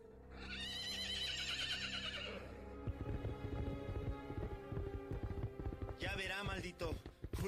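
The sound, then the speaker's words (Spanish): A horse lets out a long, loud whinny, then hooves pound in a fast, steady full gallop as a rider mounts and rides off along the road, broken by a second short neigh near the end. “Montó su caballo y corriendo a todo galope, se perdió en el camino.”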